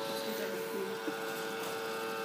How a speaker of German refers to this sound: Jetzt ist der Ventilator angegangen, der die frisch gerösteten heißen Kaffeebohnen abkühlt, weil sie dürfen nicht zu heiß sein, wenn sie dann gleich ins Mahlwerk reinfliegen.